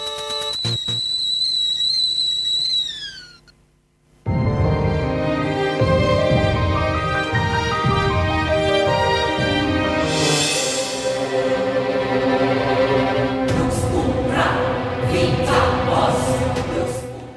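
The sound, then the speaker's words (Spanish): Fighting video game soundtrack music: high sustained tones fade into a brief pause, then a loud, dense full-band passage kicks in with a driving beat. No voices are heard. “la primera parte del OST de Dissidia Final Fantasy NT, el juego de Final Fantasy que es de pelea”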